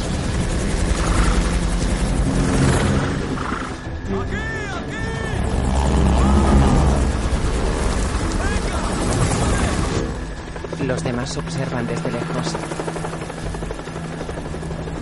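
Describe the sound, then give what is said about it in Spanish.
A loud, continuous helicopter rotor drone flies overhead, swelling briefly mid-way before settling into a steady roar, while a voice speaks over it. The helicopter, lightened by removing its rear seats and door, flies tilted. “El helicóptero vuela inclinado.”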